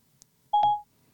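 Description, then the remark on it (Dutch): A FaceTime audio call tone: a single steady, mid-pitched electronic beep lasting about a third of a second, with a soft click at its start, set in near silence with no talking. “Er wordt met Leo Dijk een FaceTime gesprek gestart.”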